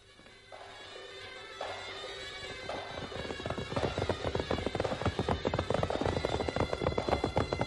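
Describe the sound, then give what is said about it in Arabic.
Horses ridden by the horsemen of Sijilmasa gallop during equestrian games, the hoofbeats starting sparse and soft, then building into a loud, rapid, dense drumming of thuds that keeps growing toward the end. No voices. “باش نبداو ألعاب الفروسية أنا سمعت برشا بمقدرة فرسان سجل ماسة في ركوب الخيل ماذا بيا نشوفهم يركضوا”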